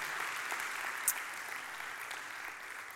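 Steady audience applause, a dense continuous patter of many hands clapping at an even level, with one brief sharper clap standing out partway through and no voices heard.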